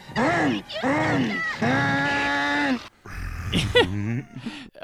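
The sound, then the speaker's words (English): A man vocally imitates a lawnmower because he is excited, with drawn-out, droning voiced noises, a few loud bursts whose pitch swells and dips, ending in rougher sputtering sounds; no actual words. “he starts making the lawnmower noises Jim mentioned because he's excited”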